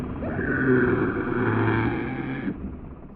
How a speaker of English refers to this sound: While, with this battle ruckus out of the way, you can hear the motors in the other room spinning round and round, and you can hear a muffled screaming going on in there.